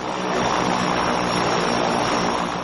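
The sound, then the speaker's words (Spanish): A small propeller plane's engine drones loudly and steadily as the plane, having landed in the desert, comes to a stop on the ground, a dense, rough roar that holds even throughout with no voices. “La avioneta se para.”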